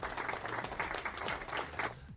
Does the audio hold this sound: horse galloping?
no